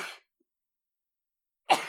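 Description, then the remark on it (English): Two sharp sneezes separated by a long silence, the first fading out right at the start and the second bursting loudly near the end, with no talking. “bless you.”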